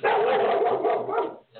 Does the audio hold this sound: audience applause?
no